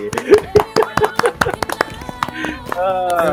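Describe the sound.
Applause breaks out as a quick, fairly steady run of sharp hand claps, with voices calling and talking over it and a sustained vocal tone near the end.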